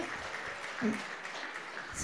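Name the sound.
audience clapping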